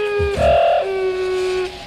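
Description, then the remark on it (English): Wood thrush song, the beginning phrases slowed to one quarter normal speed: pure, sustained whistled tones gliding between pitches, with a low rumbling burst near the start, heard alone and fairly loud. “We're hearing this at one quarter normal speed.”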